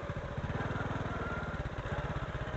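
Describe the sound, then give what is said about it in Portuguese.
A motorcycle engine idles with a steady, rapid low-pitched putter, holding an even loud rumble throughout with no voices, as the rider stops it near a bridge on a very windy day. “Vou parar um pouco a moto aqui, só pra fazer esse percurso a pé.”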